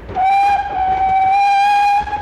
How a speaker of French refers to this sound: La locomotive noire, avec sa longue cheminée à charbon, tire une petite dizaine de wagons en acier, vert et noir. Sièges en bois, voitures bondées, certains passagers sont même suspendus au marchepied.